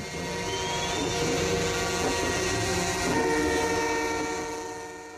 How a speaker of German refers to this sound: Und vor allem hupen sie ohne Unterbrechung.